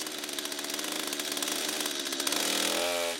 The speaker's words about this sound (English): There was multiple trees that we had to cut with chainsaws and throw heavy rounds off the hill.